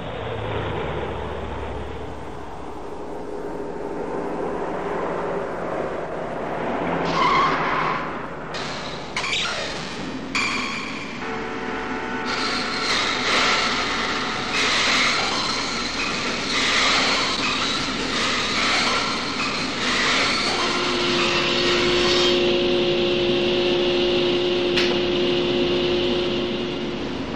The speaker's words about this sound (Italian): nella prima scena, eh, non so, che dura 30 secondi, una macchina che, eh, che gira per Los Angeles.